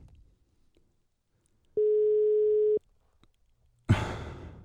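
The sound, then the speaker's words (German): A single steady telephone ringback tone hums for about a second in otherwise quiet surroundings during an outgoing call to a friend, followed shortly by a brief burst of rustling noise as the line seems to pick up. “Klingelt, ne?”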